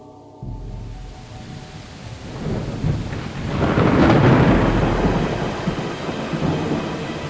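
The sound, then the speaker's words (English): A thunderstorm with steady rain hissing throughout, as a deep roll of thunder builds and swells loudly midway before easing back into the downpour; no voices. “Oh man, the rain's coming now.”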